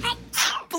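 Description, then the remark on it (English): A single quick sneeze from a bat in a dark forest: a brief tonal intake followed by a sharp, breathy burst, fairly loud, with no talking around it. “That one looks like it's about to sneeze.”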